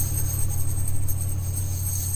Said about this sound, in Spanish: Es un frasco de semillas.